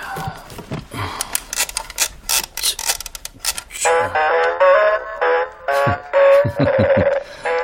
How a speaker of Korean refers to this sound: 뭐부터 볼까? 아, 요놈. 알람시계. 자.